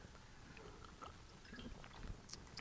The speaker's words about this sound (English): I'm just going to take a sip of water here so I don't cough everywhere.